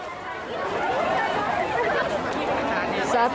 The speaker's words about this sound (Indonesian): Kerumunan warga ini terjadi di depan pintu gerbang Balai Kota Tangerang Selasa pagi tadi. Warga antusias ingin mengikuti vaksinasi massal, namun sayangnya tidak ada antisipasi kerumunan dari petugas keamanan maupun Satgas COVID-19 setempat.